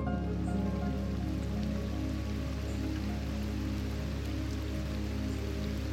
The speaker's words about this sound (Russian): Профи берет шланг – и начинает поливать прилегающую к клумбам траву.